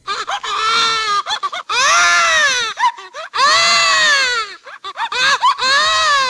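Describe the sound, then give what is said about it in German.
Babies scream and cry loudly, shrill wails coming in about four long, rising-and-falling bursts separated by brief gasping pauses, with no talking. “auf dem Platz 4 Mario schreiende Babys”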